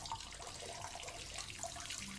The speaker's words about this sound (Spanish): Se enfrentó al lavabo para lavarse las manos